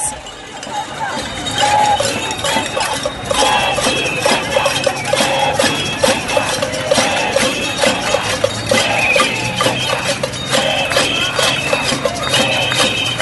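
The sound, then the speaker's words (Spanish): A cacerolazo protest in Bogotá, Colombia: loud, continuous clanging of many pots and pans struck in overlapping rhythms, bright metallic rings over a noisy crowd with voices mixed in. “Los cacerolazos se instalaron en la capital colombiana como nunca antes y como tantas veces en otras ciudades latinoamericanas.”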